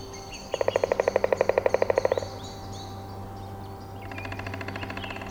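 A woodpecker drums on a tree, a fast, loud roll of rapid knocks lasting under two seconds, followed by a fainter drumming roll, with soft birdsong in the background, in a leafless beech forest in the Tatra National Park in early May.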